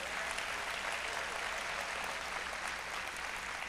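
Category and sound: crowd, audience applause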